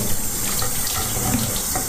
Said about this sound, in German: Jetzt wasche ich mir ein bisschen die Hände.